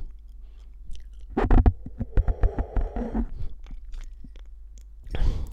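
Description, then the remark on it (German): Slurping of hot coffee near a microphone fitted with a pop filter: a run of wet sips and short gulps lasting a couple of seconds, a quiet pause, then one more brief, breathy slurp. No talking. “Ja, aber es ist eine gute Idee, da kann ich nämlich auch ein Käffchen trinken und erstmal abwarten.”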